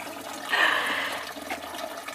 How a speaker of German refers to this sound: Wundert euch nicht, wir haben gerade Besuch. Jemand füllt sich das gute Wasser ab.